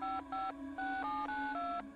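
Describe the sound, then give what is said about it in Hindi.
A quick run of about seven phone keypad tones, each a short, clear two-pitch beep with brief gaps between, fairly loud with nothing else audible, as someone dials a phone call to the owner of a house. “honour को call किया लेकिन ऑनर ने कॉल नहीं उठाया”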